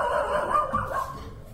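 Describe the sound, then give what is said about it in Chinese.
A neighbour's dog barks continuously, as heard from the home next door; it barks like this whenever someone passes by. A steady run of overlapping barks and yelps at a fairly loud, even level with no pauses, and no one talks over it. “邻居的狗狗还是一直吠。”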